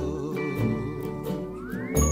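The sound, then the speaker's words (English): A bell rings during a recording take of a song, with a sustained, shimmering tone, its layered overtones hanging steadily for about two seconds before a brighter strike near the end, with no voices. “Lots of false starts and incomplete takes during the recording, and a problem with a bell.”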